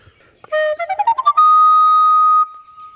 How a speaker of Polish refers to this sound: Gramy podwójnym językiem, ale każdy dźwięk jest tak samo krótki.